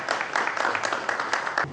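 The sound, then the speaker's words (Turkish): A group of people at a 5-star hotel in Antalya, Turkey, holding a health tourism certificate, applaud to welcome the hotel's first guest: a dense, steady patter of clapping hands that holds for a couple of seconds before tapering off. “Antalya'da sağlık turizm belgesi alan 5 yıldızlı otel ilk müşterisini alkışla karşıladı.”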